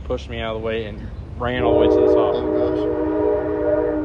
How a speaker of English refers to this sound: that's the train. Yeah. That doesn't sound bad on here. I mean, I can still hear you.